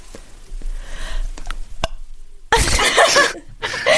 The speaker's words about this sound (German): Versuche jetzt zu rülpsen.